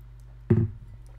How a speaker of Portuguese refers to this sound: Vou só beber água.